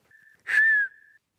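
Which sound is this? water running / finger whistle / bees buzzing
finger whistle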